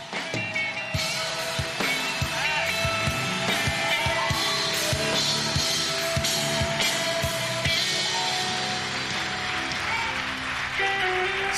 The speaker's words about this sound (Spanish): Dale un fuerte, fuerte aplauso al Rey.